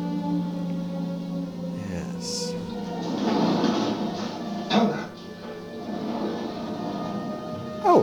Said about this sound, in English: And that I was, would assume is a rare instance of you actually being able to hear the rollers of a door on the set. Because normally, I think if someone walks through the door, you would hear that boom, sort of hum as the door opens and closes.